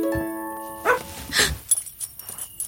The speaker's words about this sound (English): Hey, pup. You scared me. Come here, buddy. Who's a good dog? You're a good dog.